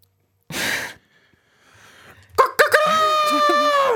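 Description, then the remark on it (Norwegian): After a breathy sigh, a voice launches into a loud, strained rooster-like crow, a sustained harmonic cry with wavering pitch, a person imitating a hen as the first animal in an animal-imitation game. “Første skal etterlignes er høne.”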